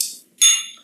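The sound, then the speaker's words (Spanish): Two bright glass clinks in quick succession as people toast, the second louder and ringing out briefly, with no voices over them. “Hasta que te toque ya, choca.”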